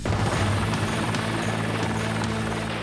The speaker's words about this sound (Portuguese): Major da PM e piloto do Águia, o helicóptero de resgate da polícia, ele treina para transportar os militares em segurança em situações extremas.